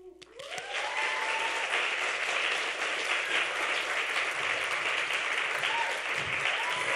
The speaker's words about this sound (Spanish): Con este pretexto, démosle una felicitación y un fuerte aplauso a los músicos de esta noche.